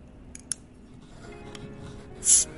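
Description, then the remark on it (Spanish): A beer being opened for a celebration: a couple of small metallic clicks, then a short, sharp fizzing hiss as the seal gives way, over quiet room noise. “Yo, para hacer la celebration, tengo aquí mi birrita de la victoria. que se oiga, que se oiga.”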